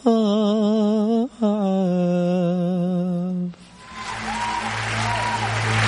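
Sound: applause sound effect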